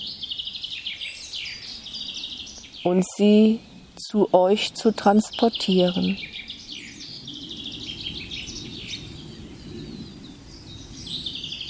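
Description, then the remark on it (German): Birdsong chirps and trills continuously throughout, fairly bright and steady, with a brief stretch of a person talking in the middle over the birds. “Ich könnte einfach dieses Menschenkind bitten, die Gesänge der Vögel aufzunehmen”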